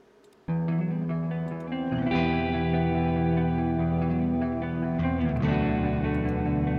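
After a half-second of quiet, a promotional rock song from a band bursts in loud with heavy, distorted guitar chords ringing steadily, shifting chords around the two- and five-second marks. No one speaks.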